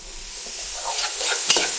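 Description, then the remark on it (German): Steady sizzling of onions frying in a pan, a bright continuous crackle with a few stirring scrapes and one sharper clatter near the end; no one speaks. “Zwiebeln, ihr hört die im Hintergrund.”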